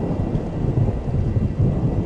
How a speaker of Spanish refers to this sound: No es difícil percatarse de estar metido en un bosque en el que solamente reina el ruido de la lluvia que cae copiosa sobre las hojas la leve brisa y el crujir